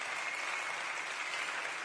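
An audience applauds in a dense, steady wash of clapping that holds an even level throughout, with no voices heard over it.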